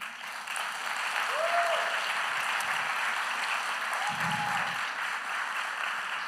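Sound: audience applauding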